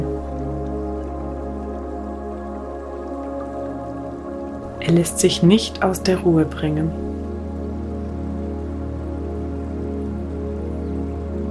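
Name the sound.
river water flowing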